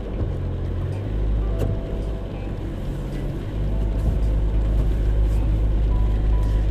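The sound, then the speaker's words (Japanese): Steady, loud low-frequency rumble of a car cabin while driving on a cold day, with the windows fogging up, on the way to a nearby shop; engine drone and road noise hold constant throughout and swell slightly toward the end; no one speaks. “車にね乗ってるんですけれどもなんかねすごくね曇ってきちゃったんですよねやっぱり寒いからエアコンをちゃんと上手に使わないと車が曇っちゃうんだなって思って久しぶりにね、あのー、車を運転してるのでなんかね変な感じですね。”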